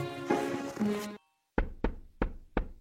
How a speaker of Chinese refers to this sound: 蚱蜢没有食物，饿得奄奄一息。好不容易来到蚂蚁家门口，开始敲门。